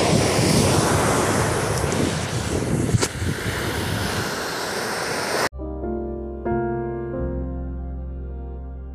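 Ocean surf roars steadily with a loud, windy wash of breaking waves for several seconds, then cuts abruptly to soft, sustained instrumental music with no voices.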